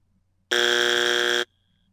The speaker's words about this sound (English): I'm going to play you a buzzer sound effect from a game show, and I need you to tell me what show it's from. Here it is.